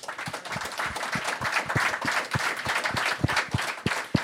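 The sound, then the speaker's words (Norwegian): An audience at a Ballspark show at Kulturhuset breaks into applause for a man seated on the front bench, a dense wash of many hands clapping steadily for several seconds, with a few sharper individual claps standing out over the crowd noise. “Gi han mannen der forresten en god applaus.”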